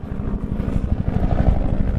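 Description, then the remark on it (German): A small propeller plane, carrying mainly tourists, at Macarena, Colombia, drones loudly and steadily, its low engine note pulsing in a fast, even rhythm with a rough, buzzing texture. No one speaks. “Heute entsteigen den kleinen Propellermaschinen vor allem Touristen.”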